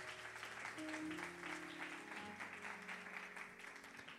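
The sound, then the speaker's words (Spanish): A church audience breaks into sustained applause for the Lord, a dense, steady wash of many hands clapping at even loudness throughout, with a low sustained musical tone humming underneath. “Y dele un aplauso al Señor.”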